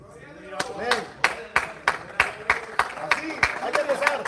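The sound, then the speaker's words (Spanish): Steady rhythmic hand clapping by two bald men, about a dozen sharp claps at an even quick beat, with a voice speaking continuously underneath. “Gloria a Dios por esos dos pelones que aplauden.”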